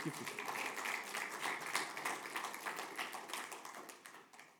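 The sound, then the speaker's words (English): An audience applauds a keyboard player, a dense, steady patter of many hands clapping together that holds for several seconds before gradually thinning out and fading toward the end. “Give him a hand.”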